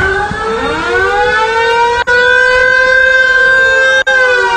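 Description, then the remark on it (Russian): A river boat horn blares at Kievsky pier in Moscow as the first river transport voyage sets off. One long, loud, steady tone swoops up in pitch at the start and is broken by two split-second cutouts, with no voices over it. “Гудит как настоящий.”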